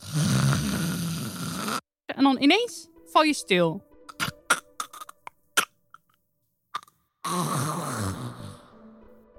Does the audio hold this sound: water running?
no